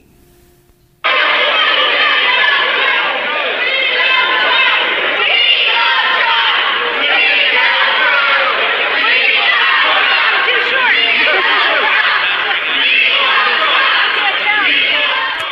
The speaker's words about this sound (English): They're shouting, We love Trump. this this is really hilarious. It is. She's trying to have a news conference after her CPAC speech.